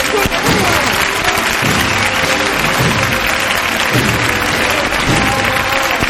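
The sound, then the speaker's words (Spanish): Sustained applause from a large outdoor crowd during a religious procession of the Virgin of Hope, as the bearers carry the float along its official route, dense and steady throughout, with indistinct voices mixed into the clapping. “El aplauso del público mientras los anderos alivian este ritmo tan, particular de esta carrera, por así decirlo, de, de la Virgen de la Esperanza durante su itinerario y durante el recorrido oficial.”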